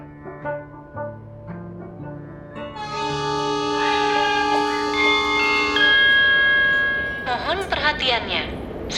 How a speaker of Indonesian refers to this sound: stasiun berdentang nyaring.